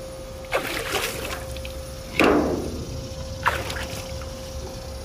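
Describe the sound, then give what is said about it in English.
Water in a soaking tub on a deck is splashed in three separate bursts to get a couple of drowning wasps out, the middle one loudest and broadest, over a steady low hum, with no voices. “And so that was the sound of me splashing a couple of wasps out of the tub that were drowning.”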